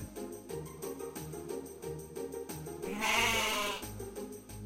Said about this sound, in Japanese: Bah! Bah! bleated the sheep.